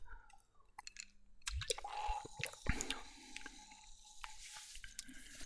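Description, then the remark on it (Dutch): Quiet sipping of a clear, bubbling fizzy soft drink from a bottle with a glass marble in the top: a few wet slurps and swallows with small mouth clicks and a faint crackling hiss, without any talking. “Let's steek de eerste slok.”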